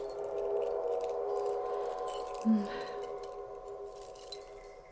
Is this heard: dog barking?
no